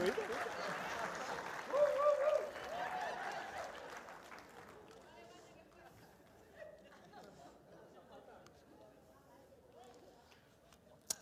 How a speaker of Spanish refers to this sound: Un aplauso al Señor ahí en esta mañana